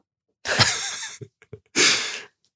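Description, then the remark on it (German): A dog lying in its basket in an office breathes heavily and noisily: two long, raspy breaths with a few short snuffling clicks in between, no voices present. “Deswegen darf er jetzt hier mit uns im Büro chillen und er atmet gerade wie so ein, weiß nicht was.”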